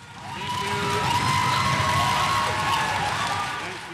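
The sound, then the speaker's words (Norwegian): A large crowd applauds South Africa's finance minister Pravin Gordhan after his farewell speech following his dismissal, a dense, loud wash of clapping that swells in and fades out over a few seconds, with some shrill whistling tones running through it. “Applausen er til ære for Sør-Afrikas finansminister, som holdt en avskjedstale etter å ha fått sparken.”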